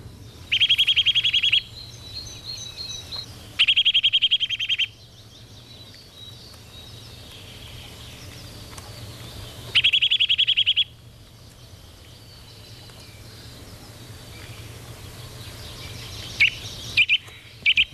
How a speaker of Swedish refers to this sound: Men vi kan ju lyssna på hur nötveckan bevisligen låter.